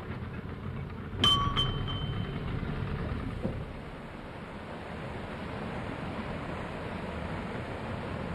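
A heavy metallic clang with a brief ringing squeal rises over a steady rush of churning water and low engine rumble as a canal lock gate closes behind a boat, followed by a softer knock; the water keeps swirling afterward.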